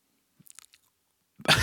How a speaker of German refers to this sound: Und jetzt habe ich umgeswitcht auf eben stark und schön und du schmatzt viel.